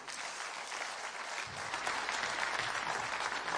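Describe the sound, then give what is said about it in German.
A crowd claps steadily for several seconds for a caretaker who is retiring at the end of April, a dense wash of applause that swells slightly partway through and stays fairly loud throughout, with no one speaking over it. “Äh, wir werden ihn noch anständig verabschieden hier, also, aber wir können ihm gerne jetzt schon einen kräftigen Applaus geben.”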